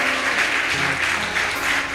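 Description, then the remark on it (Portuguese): A church audience claps steadily for a couple of seconds for the name of the Lord, a dense, continuous wash of many hands applauding together, with faint low tones sustained underneath. “Quantos podem aplaudir o nome do Senhor?”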